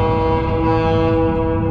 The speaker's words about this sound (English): But yeah, this is a plane, uh, an airport, I believe in Texas. Yeah, Abilene, Texas. So there's a regular plane.